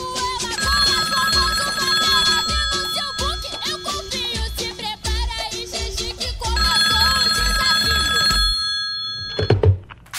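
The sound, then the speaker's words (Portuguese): A telephone rings steadily and persistently with nobody picking up, its bright electronic tone loud before cutting off near the end with a soft clunk; a call placed to a friend who does not answer. “Menina, essa rapariga se meteu aonde que não atende esse telefone, hein?”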